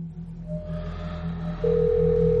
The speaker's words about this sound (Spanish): La otra cosa que te das cuenta es que puedes escuchar otro sonido. Un celular. Uno que conoces muy bien. Y uno que viene desde arriba.